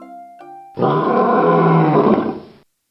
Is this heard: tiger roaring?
yes